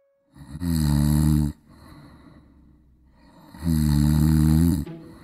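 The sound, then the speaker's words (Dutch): Two loud, rumbling snores, each lasting over a second, separated by a quieter breathing pause, with a harsh rasping texture and no talking, from a person snoring at night. “In deze podcast gaan we het dus hebben over snurken een van de meest voorkomende ongemakken s'nachts.”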